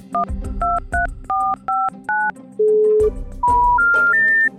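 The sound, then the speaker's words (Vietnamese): A phone keypad dials a number to make a call: six short two-tone beeps in quick rhythm, then a few longer rising tones, clear with no talking. “Thế đi, đi đâu ấy nhỉ để, để phải gọi xem nào”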